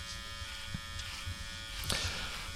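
Electric hair clippers buzz steadily, a constant motor hum with brief scraping surges as the blades move through hair during a haircut, cutting the back and side hair short; no one speaks.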